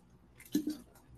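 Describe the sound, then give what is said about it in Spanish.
Two quick, wet gulps as someone swallows a drink of water, with soft mouth noises before and after and no talking. “Nada vamos a tomar agua.”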